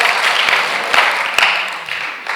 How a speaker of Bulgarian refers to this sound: Ако ръкопляскаш, ръкопляскай като че проповядва. Ръкопляскай като че го вярваш. Ръкопляскай като че мъжът ти ще се промени с тази проповед. Ръкопляскай като че... Хей! Ръкопляскай като че имаш вяра.